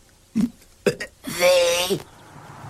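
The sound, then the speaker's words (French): Someone doing the alphabet by burping, burping and then saying the letter: two short, abrupt burps are followed by a loud, drawn-out belching vocal sound lasting about a second, with quiet background noise afterward. “fait son fameux numéro de l'alphabet en rotant, mais il rote puis il dit la lettre.”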